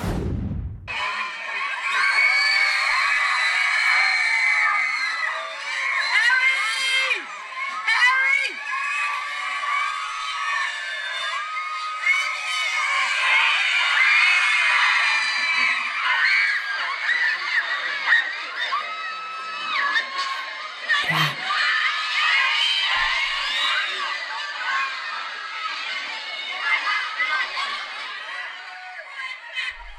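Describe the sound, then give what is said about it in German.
A crowd of fans shrieks and screams continuously at a high pitch as a man arrives at a press conference, a loud, dense wall of excited voices with cheering and shouting that barely lets up for the whole stretch. “Und das war nur, also es war noch nicht mal die Premiere, das war nur seine Ankunft bei der Pressekonferenz.”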